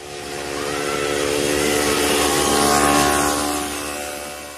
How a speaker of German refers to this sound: Ein Mofa. Wie ein Fingernagel kratzt es über die Tafel unserer friedliebenden Seele.